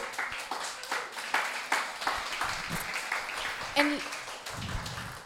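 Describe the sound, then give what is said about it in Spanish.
An audience breaks into steady applause given to God, many hands clapping in a dense, crackling patter that holds at a moderate level throughout, with scattered voices and a brief vocal cheer mixed in. “Démosle un aplauso a Dios.”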